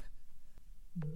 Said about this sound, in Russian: Сейчас еще три звонка, и все, мы бросаем трубку.